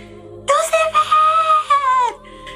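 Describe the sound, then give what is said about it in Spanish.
A person imitates an anguished, drawn-out scream, a single loud, high wailing cry lasting nearly two seconds with a quavering pitch that drops slightly before cutting off. “grita, pero así desgarradamente así,”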